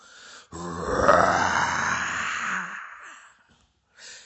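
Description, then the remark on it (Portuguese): A deep, loud roar bursts in and stretches for nearly three seconds, swelling then slowly fading out; it sounds like a human voice imitating the bellow of a huge monster, a boiuna coming out of the water. “Se se a boiuna aparecesse, eu pegava ela então se escutou um urro guaçu.”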